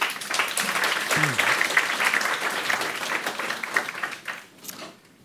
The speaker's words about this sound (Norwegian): En varm applaus til begge to.